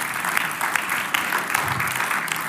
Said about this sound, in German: Ganz herzlichen Dank. Wir geben Gott einen Applaus für das, was er da gewirkt hat